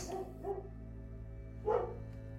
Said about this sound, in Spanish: era un perro.